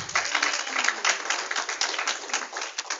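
A crowd applauds steadily, many hands clapping at once in a dense, continuous patter of sharp claps that holds at an even loudness for the whole stretch.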